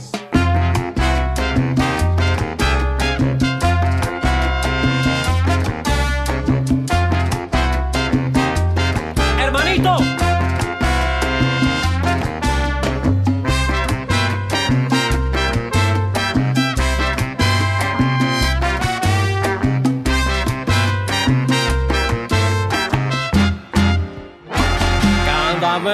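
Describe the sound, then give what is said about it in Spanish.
A lively salsa song with male vocals plays loudly throughout, with a driving bass line, steady percussion and bright brass-like melodies layered densely, stopping briefly near the end. “suena así en la casilla número 3 de Salsa Éxito del Mundo.”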